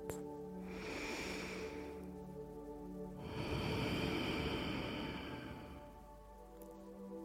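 A slow, airy breath drawn in and then let out during a guided breathing exercise counting down from 31, one breath per number, two long hushing swells over a soft, steady droning tone, with no talking.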